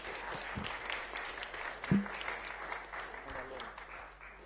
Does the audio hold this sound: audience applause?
yes